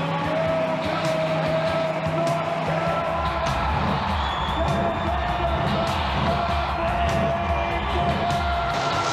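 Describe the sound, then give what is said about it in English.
A monster truck engine at full throttle roars and revs hard and steadily, its deep growl rising and holding over a noisy crowd at a show in Houston. “speed, full throttle car crusher.”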